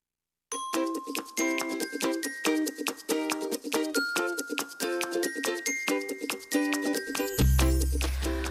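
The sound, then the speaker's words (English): A short instrumental music cue of bright, bell-like chiming notes in a quick steady rhythm, fairly loud and clear, ending with a deep, swelling low tone. No voices. “All right, music cue.”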